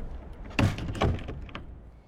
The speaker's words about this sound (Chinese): 说完，转身回大牢而去，大门重新关上。